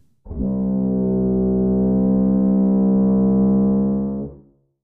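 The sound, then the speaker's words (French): A processed sample, pitched up four semitones to the note C, EQ'd and heavily low-pass filtered to remove high frequencies: a dark, muffled, foghorn-like tone stressing the low mids sounds loud and steady for about four seconds, dull with no bright highs, then fades away. No voices. “Après un EQ et un filtre passe-bas drastique, je retire les hautes fréquences et mets plus en valeur le côté sourd du son dans les bas médiums.”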